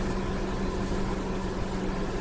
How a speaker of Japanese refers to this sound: 暑くて車の中なので、そして食べ物を持っているので、えー、エンジンをかけたまま、クーラーをつけたままで、えー、録音の方をしております。